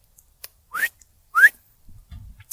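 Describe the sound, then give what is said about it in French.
Two quick, rising whistles, fairly loud, calling back a dog that has gone too far, followed by a brief low rustle and thump. “Fait que si je siffle comme ça, c'est parce que le chien, ça va trop loin.”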